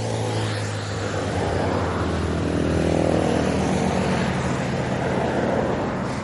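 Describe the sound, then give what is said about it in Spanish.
Steady traffic roar as motorcycles, trailer trucks and small, medium and large cars pass by, some slow, some faster, a continuous rumble of engines that swells slightly mid-way, with no one speaking. “Pasan motocicletas, trailers, carros pequeños, medianos, grandes.”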